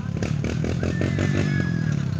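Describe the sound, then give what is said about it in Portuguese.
Passing car traffic: a loud, steady low engine rumble runs throughout, with a faint whining tone rising over it partway through as a vehicle goes by. “Deixa eu passar esses caras, esse povo de carro aqui.”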